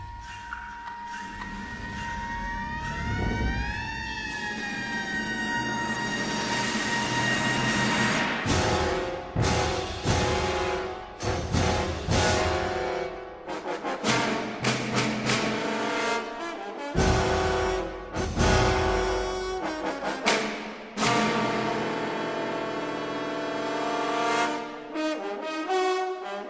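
Edgard Varèse's composition Hyperprism, dissonant modernist ensemble music heavy on percussion, cymbals and mechanical devices: a siren-like tone swoops up and down early on, then loud crashing drum and cymbal hits punctuate sustained brass chords, with no talking.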